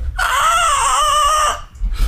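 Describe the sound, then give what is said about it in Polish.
A recorded pig squeal from a slaughterhouse rings out once, shrill and loud, holding for over a second with a harsh, wavering pitch before cutting off, over a faint low background rumble. “Otóż te piski, które są tam, no to są po prostu nagrane piski świń Mhm.”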